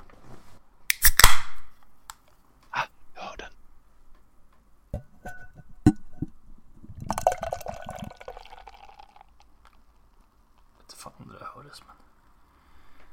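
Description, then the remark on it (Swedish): A drink is opened with a sharp hiss and a few clinks, then poured into a glass in a steady gurgling stream lasting a couple of seconds, followed by faint handling noises. “i glas blev det också.”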